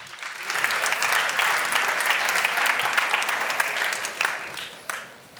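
An audience applauds steadily for about five seconds to welcome two speakers, a senior software engineer from Tinder and the CTO of Axel Springer Ideas Engineering. The dense wash of clapping holds level, then thins out with a few last scattered claps.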